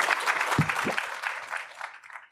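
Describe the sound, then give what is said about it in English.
An audience at the ATX Television Festival applauds its panelists steadily, a dense wash of many hands clapping at a moderate level that holds for a couple of seconds, then thins and fades out toward the end. “Please give a Thanks, round ben. of applause to all of our panelists.”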